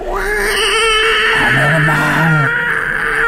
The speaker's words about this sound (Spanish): Un quejido sordo y entrecortado al comienzo semejante al sollozar de un niño, que luego creció rápidamente hasta convertirse en un largo, agudo y continuo alarido.